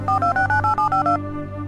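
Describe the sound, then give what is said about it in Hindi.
A rapid run of about nine electronic keypad beeps, each a short two-tone burst as a phone number is dialed to call reception from room 113, heard clear over a low hum with no talking. “रविकांत ने रिसेप्शन पर फोन किया”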